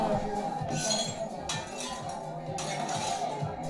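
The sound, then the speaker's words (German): Dishes and cutlery clink and rattle in a steady jumble, with bright metallic and glassy taps bunching into a few louder bursts, as Booknight walks across a laden snack table. “Booknight, nicht über den Snacktisch laufen.”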